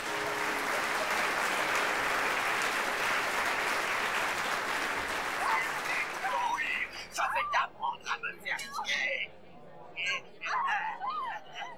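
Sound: audience applause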